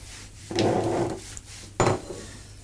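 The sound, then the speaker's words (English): A regular cloth rubs briskly over a wooden chopping board to dry it, one longer wiping stroke followed by a short, sharper scrape, fairly quiet, with no talking. “So if you, if you don't mind just giving that chopping board a quick dry for me.”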